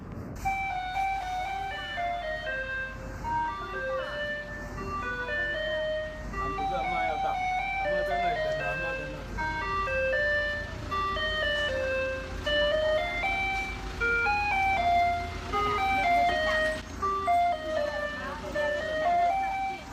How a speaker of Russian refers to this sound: потому что здесь играла Кэлизе. И это самое запоминающееся использование данной мелодии. Он сказал, что ну, невозможно было представить, что такую мелодию возьмут и поставят на мусорную машину.